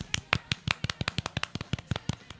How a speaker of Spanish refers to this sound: Un aplauso para ellas.